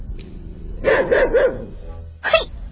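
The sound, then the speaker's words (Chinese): A guard dog barks loudly, a rapid string of three sharp, mid-pitched barks, then a short pause and one more bark. No one speaks. “他冲着凶恶的看门狗大喊”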